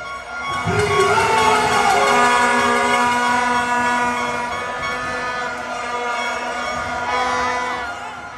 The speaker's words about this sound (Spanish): Savant estuvo varios minutos, como cinco, tratando de coger el micrófono y hablar, pero el público no lo dejaba. Escuchemos cómo el público estaba eufórico eh, molestando y gritando a Savant que ni siquiera lo dejaban poder expresarse.